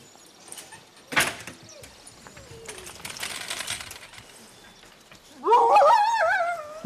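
Huskies in a dog yard bark and yelp in an excited, overlapping chorus toward the end, after some scattered clattering and rustling noises, fairly close and loud.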